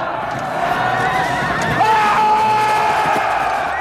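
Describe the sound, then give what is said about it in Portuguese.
A horse neighs loudly with a shaky, wavering whinny that rises and holds, set against a dense wash of battle noise and shouting crowds, in a battle between Portuguese and Moroccan fighters. “Meu cavalo não torna! Meu cavalo não torna!”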